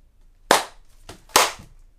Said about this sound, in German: Aufnahme startet. Audio clap.